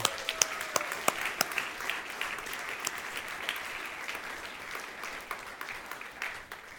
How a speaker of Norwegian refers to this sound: Vi må gi en ny applaus til det der koret, altså.